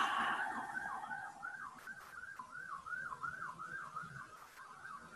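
A passing ambulance siren wails in a rapid rising-and-falling warble, fairly faint, continuing steadily over a low background hum with no one speaking.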